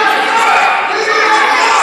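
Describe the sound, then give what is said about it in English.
A large crowd chants "USA" loudly in unison at a wrestling event, a dense, sustained roar of many voices with rhythmic shouting and no break in the noise. “He's got every reason to be, but this, this crowd chanting USA for that proud American dope.”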